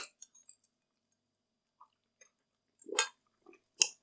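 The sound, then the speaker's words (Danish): Glasses clink together in a toast, with scattered small taps and a soft sipping or slurping sound, otherwise quiet; no one speaks. “Øh, skål. du bare. Skål.”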